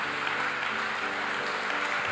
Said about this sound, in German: Können wir Jesus mal einen Applaus geben? Jesus, wir lieben dich.